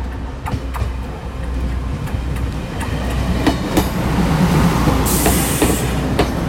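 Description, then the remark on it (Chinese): A train rumbles steadily along the tracks with a continuous low roar, punctuated by repeated sharp clacks of the wheels and a brief high metallic squeal near the end. “火车轰隆轰隆的前进”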